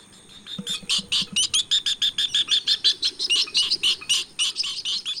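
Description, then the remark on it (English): A northern jacana gives a rapid series of harsh, chattering calls, about twenty sharp notes in quick rhythm, loud, with faint background chirps and no talking. “The northern jacana, found in Mexico, Central and South America, and Cuba.”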